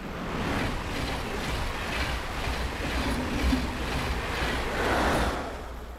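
A steady, continuous rumble of a train moving at constant high speed, with a broad rushing roar and a low, constant undertone, holding fairly even in loudness throughout and swelling slightly near the end.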